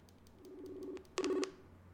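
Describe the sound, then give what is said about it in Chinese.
Electronic phone tones as a call is dialed on speakerphone: a steady, moderately loud tone lasting about half a second, then a brief pause and a shorter, louder buzzy tone, with no talking. “马上打电话给修修来问他一下，那个他出国都怎么省钱的。开个扩音啊”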